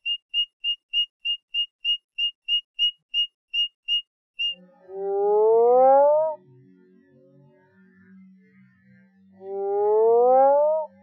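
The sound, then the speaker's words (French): A male Mexican burrowing toad (Rhinophrynus dorsalis), calling while floating on the water, gives two long, loud, low moaning calls that swoop upward, each about a second and a half, after a quick run of short, high, even pips. “Rhinophrinus dorsalis. C'est une grenouille qui est connue euh, des États-Unis euh, jusqu'au Costa Rica. Et les mâles chantent euh, en flottant au-dessus de l'eau.”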